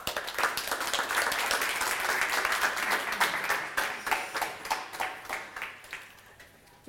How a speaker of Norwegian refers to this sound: Tusen takk. En applaus.